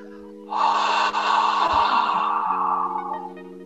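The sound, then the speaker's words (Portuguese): A single long, breathy exhale released through the open mouth from the throat after a deep inhale through the nose, as if fogging a mirror, during a breathing exercise; a steady ocean-like hiss lasting a few seconds, fairly loud, with soft sustained background tones underneath. “A gente vai fazer um som que é igual ao mar, que é assim, ó.”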